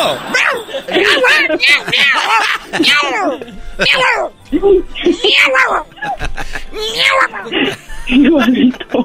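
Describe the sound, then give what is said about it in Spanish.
A person voices a rapid run of imitations of a cat and a dog at the same time, meow-like and bark-like, loud, with sweeping pitch and short breaks between the bursts, and other voices chatter faintly around them. “¿Puedes hacer el, el, el ruido de un gato y un perro a la vez?”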